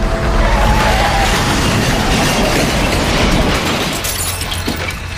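A car veers off the road and slams into a tree: a loud, sustained roar of crunching and shattering debris with a deep rumble underneath, easing slightly toward the end after a few sharp cracks.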